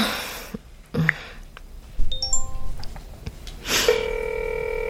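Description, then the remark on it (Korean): Electronic telephone tones: a few short, clean beeps in the middle, then a steady ringing tone near the end, heard alone without any talking. “혹시 깨 있으면 잠깐 통화해도 돼?”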